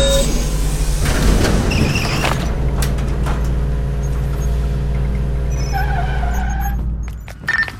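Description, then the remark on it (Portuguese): A heavy cargo hatch grinds open over a steady low mechanical hum, with a broad rushing burst early on, then scattered clicks and a few soft electronic chirps as it settles. “Abrindo o compartimento de carga.”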